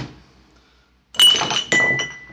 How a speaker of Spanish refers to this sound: Derribó las botellas.